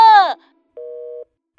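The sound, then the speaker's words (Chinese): A brief vocal groan, then the flat electronic beeping of a phone tone after a call to the captain of the rescue ship at sea hangs up: a steady mid-pitched half-second beep, a pause, then the next beep starting. “电话挂断了，小福和壮壮一脸惊愕地看着琪琪。”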